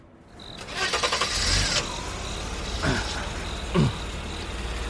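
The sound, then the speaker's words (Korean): A car engine cranks and catches in a loud burst lasting about a second, then settles into a steady low idle rumble, with a couple of brief mechanical clunks along the way. “시체가 내려오는 것을 확인하자 차에 시동을 걸었다.”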